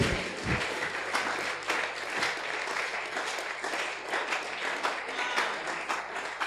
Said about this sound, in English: Wow. wow. Oh, clap for salt. Clap for salt.